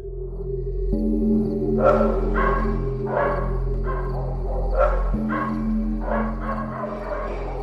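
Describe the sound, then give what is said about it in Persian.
Dogs of the surrounding area barking unusually, repeatedly, in a steady series of sharp, fairly loud barks, about a dozen in quick succession, around five or six in the morning before full daylight, over a constant low droning hum. “بعد دو سه ساعت از خواب بیدار شدم اونم با سر و صدای واق واق کردن سگای اون اطراف نزدیک های پنج و شیش صبح بود و هوا هنو کامل روشن نشده بود خیلی غیر عادی سر صدا می کردن.”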